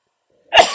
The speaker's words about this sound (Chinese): 哦，讲到都咳嗽